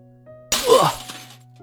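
A glass red wine bottle is smashed onto a man's head in one sudden, loud crash, followed by bright tinkling shards that fade within about a second, over a low steady background hum.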